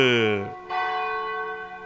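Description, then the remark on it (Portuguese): The bell of the Cathedral of Nossa Senhora de Aparecida rings at 14 minutes to 10 at night with two loud, resonant strikes, the first fading as the second sounds, each leaving a long, rich metallic hum that lingers in a reverberant space. “Faltando 14 minutos para as 10 da noite, bate o sino da Catedral de Nossa Senhora de Aparecida”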